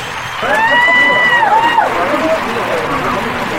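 A concert crowd applauds and cheers, with a broad wash of clapping and a few rising, whistle-like shouts near the start, the noise holding steady at a loud level throughout.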